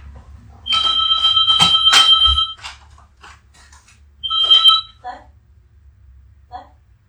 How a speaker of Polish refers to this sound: Słuchajcie, muszę otworzyć domofon. Przepraszam Was. Przepraszam.